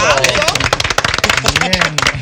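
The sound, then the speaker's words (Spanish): Audience applause: a dense, steady patter of many hands clapping at once, loud and continuous for the whole moment, with voices calling out and talking over it. “Un aplauso.”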